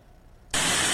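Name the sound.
rain and wind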